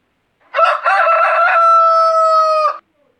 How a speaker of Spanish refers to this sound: A la mañana siguiente, el gallo cacaraqueó largo y fuerte.